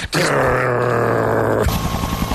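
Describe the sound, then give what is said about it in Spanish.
A person imitates the flight buzz of a female stag beetle (Lucanus cervus) with a loud, sustained, low droning hum from the throat, steady for about a second and a half before shifting to a rougher, pulsing buzz. “Escuchar el este zumbido. en este caso de una hembra de, Lucanus cervus”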